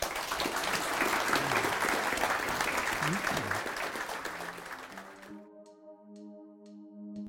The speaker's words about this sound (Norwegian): En applaus til panelet.